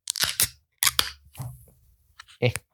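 A can of pale ale is cracked open: a few sharp metallic clicks and pops, then a soft fizzing hiss as it vents, with another quick snap at the end.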